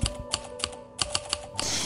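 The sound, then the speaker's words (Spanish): A typewriter clacks away, sharp key strikes arriving in uneven bursts of two and three, ending in a brief metallic rustle, with no voices. “Esto es una máquina de escribir”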